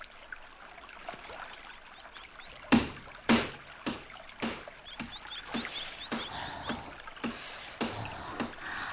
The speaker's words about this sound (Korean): 아, 손 시려. 어허, 아이, 그 시냇물이 이렇게 찬데 여기서 뭐 하는 거요? 빨래를 하고 있었어요.